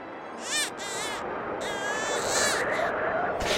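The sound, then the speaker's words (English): A young baby cries in a few thin, wavering wails, one after another, heard faintly from inside an isolated cabin perched above the sea ice in Muddy Bay, northeast Canada, at minus 30 outside. A steady background hiss runs beneath, and no one talks. “And inside, if you listen very carefully, you can hear a young baby crying.”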